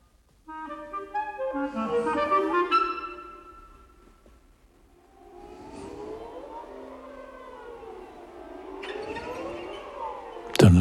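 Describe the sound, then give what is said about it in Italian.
Orchestral strings swoop in overlapping glissandi in an orchestral work by Enze, the sliding pitches rising and falling in slow, wavering arcs after a dense opening chord cluster, moderately loud throughout with no voices. “sempre i glissandi.”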